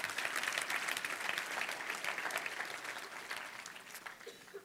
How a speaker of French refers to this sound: Donc, oui, ça, ça mérite une bonne main d'applaudissement.